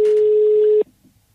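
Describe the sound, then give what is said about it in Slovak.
A steady, loud single-pitched telephone call tone holds for under a second, then cuts off abruptly, leaving only faint low background noise. “A teraz bude volať naspäť, že kto mu volal.”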